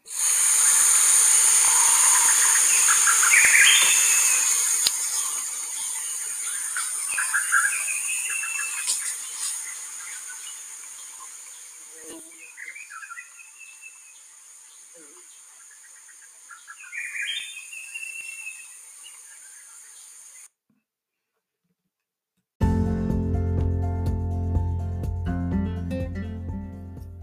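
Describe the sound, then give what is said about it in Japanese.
Chimpanzee calls rise and fall in short bursts a few times over a steady, loud hiss of forest insects, heard on a chimpanzee tour in a park as chimpanzees move from tree to tree overhead; the scene then breaks off into a brief silence and a different, tonal sound. “で、これもですね、ゴリラじゃないや、チンパンジーの声を聞いていただきたいと思います。”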